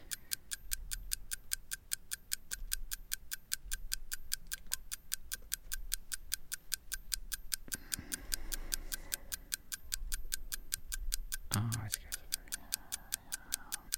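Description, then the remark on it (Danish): A clock ticks steadily and evenly throughout as a timer runs while a contestant thinks, each crisp tick clear, with faint murmuring voices and a soft rustle appearing in the background partway through. “Og dem skal du placere på en tidslinje, og vi sætter lige et ur i gang, som kører, mens du lige får lidt tid til at stå og tænke.”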